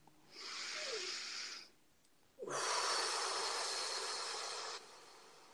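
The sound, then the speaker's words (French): A slow, audible inhale followed after a brief pause by a longer, fuller exhale, both breathy and airy, with no talking. “Une respiration.”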